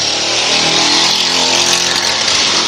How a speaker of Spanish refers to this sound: Siempre estamos. perdón. pie de calle, bueno, ahí está la moto, ¿no?